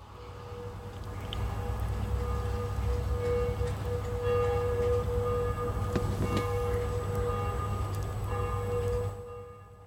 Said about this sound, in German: Kannst du diese Kirchenglocken hören? Warte, ich versuche mal hier den Pegel ein bisschen hochzuziehen.